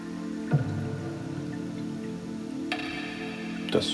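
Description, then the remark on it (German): Water splashes and drips over a steady, full-bodied background, with a few sharper plops standing out now and then. No one speaks. “Ja, man hört hier so Wassergeplätscher, das höre ich bei dem Echo eher nicht, das geht da eher in den Tiefen ein bisschen unter.”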